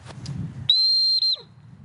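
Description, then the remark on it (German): A single shrill, steady whistle blast from a dog whistle, blown to call a dog back, loud, lasting over half a second with a tiny break near its end, set against a low outdoor rumble. “Sitz, jetzt mir einen Hund pfeifen.”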